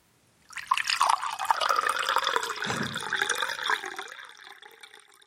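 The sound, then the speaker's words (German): A sip of water is poured steadily into a glass for about three seconds as a demonstration, a splashy trickle whose pitch rises as it fills, then tapers off into quiet dripping. “ich habe ich hab mir einen Schluck Wasser eingeschüttet und wollte das demonstrieren, das mit dem Pinkeln.”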